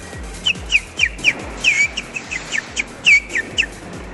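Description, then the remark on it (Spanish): A person whistles a string of short, chirpy bird-like calls, about a dozen quick tweets in an uneven rhythm, moderately loud, with no talking. “Entonces, cuando estamos muy estresados, nos llamamos como los pájaros, ¿sabes? Hacemos así.”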